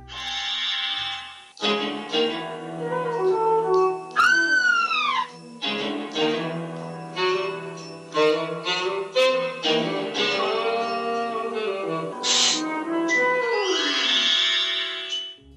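Pink Panther cartoon sound effects play continuously: a sudden high, falling comic scream from a Cinderella-like girl, then bright, shimmering magic-wand sweeps among bouncy tonal sounds. Loud, with no talking.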